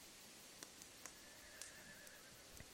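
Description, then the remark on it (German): Faint whinnying of shying, restless horses rises and wavers in the background, joined by a few soft scattered knocks and thuds, with no one speaking. “Die scheuen im Hintergrund, man hört sie so ein bisschen schreien, also wiehern, ja.”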